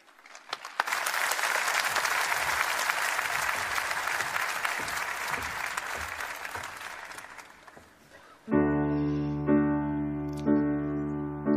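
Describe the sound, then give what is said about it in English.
A large audience claps and cheers steadily for about eight seconds at the end of a live song performance, a dense wash of applause, which cuts off abruptly as sustained music with a steady tone begins. “On the count of three, I want you to yell, stomp, cheer, clap, or anything else you feel like doing, not for the song or for my lame performance, but to let René know that wherever he is right now, he will hear us and our love for Him.”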